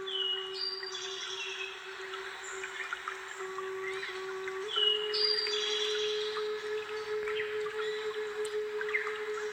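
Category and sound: bird, birds singing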